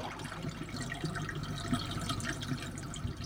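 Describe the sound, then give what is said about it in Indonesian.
Swift, wide river water rushes past in a steady, continuous churn with small bubbling splashes, moderately loud, with no voices. “Selain aliran sungai di sini deras dan luas arah untuk melakukan pertapaan, di sini juga tepat menghadap matahari tenggelam.”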